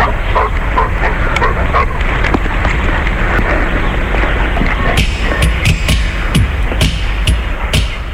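dog barking

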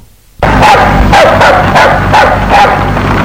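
small dog barking

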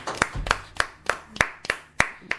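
audience applauding

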